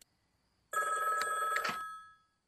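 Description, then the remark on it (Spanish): A single burst of a telephone bell ringing, bright and metallic with a sustained jangling tone, starting abruptly after a short silence and ringing for over a second before fading out. “esa malvada grabación de nuevo ha llamado toda la noche. Desconecta el teléfono.”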